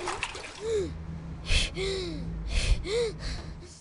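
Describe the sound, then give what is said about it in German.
A sharp gasp for air bursts out amid splashing water as a man surfaces after diving while fishing, followed by a few more breathy gasps and watery sloshes, fairly loud. “Er taucht auf.”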